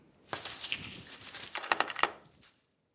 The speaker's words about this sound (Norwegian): Båndsalat er sånn som vi fikk eh, når vi jobbet i radio og brukte spillere med magnetband. Og eh, hvis det gikk i surr, så fikk en veldig fort bannsalat. Det er en helt egen lyd av bandsalat. sånn Når du prøver å få ut igjen bandet.